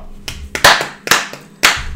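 A brief smattering of applause: a handful of sharp, loud claps at an uneven pace, as if from just a few people, over about two seconds with no talking.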